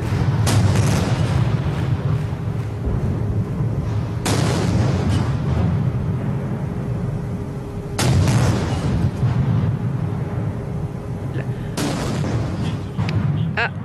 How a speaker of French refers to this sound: Les canons des Tuileries viennent de saluer le passage sous la voûte du premier homme du premier régiment qui escorte le cortège.